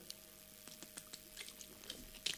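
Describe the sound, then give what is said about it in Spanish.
Someone takes a sip of water during a live broadcast: a few soft, wet swallowing clicks spaced out, ending in a slightly louder gulp, with no talking. “tras este trago de agua en directo”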